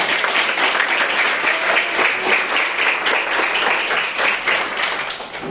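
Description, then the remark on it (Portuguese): Sustained applause from a large church audience praising the Lord Jesus Christ, dense overlapping clapping that stays loud and steady throughout before easing slightly at the very end, with no voices standing out. “E as palmas que adorem ao Senhor Jesus Cristo.”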